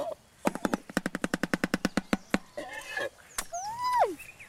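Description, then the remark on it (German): The shoebill Sushi's bill-clattering greeting, the way these birds greet one another: a fast, even burst of about sixteen loud, hollow wooden claps, like a machine gun, followed by some scattered rustling and a few squeaky, swooping whistled calls. “Und das ist die Art, wie die Vögel einander begrüßen.”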